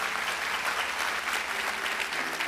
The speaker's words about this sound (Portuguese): Quem pode dar uma saúde de palmas para o Senhor?